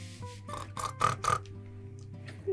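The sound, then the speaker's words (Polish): A person imitates a worried pig grunting: four or five short, raspy, nasal grunts in quick succession, close to the mic, then a quieter trailing breath. “No ja to wiem, bo to akurat chrumkanie tak.”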